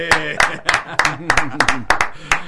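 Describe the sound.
Steady, brisk hand clapping welcoming a guest on a programme, roughly three claps per second, moderately loud, with voices or laughter murmuring underneath throughout.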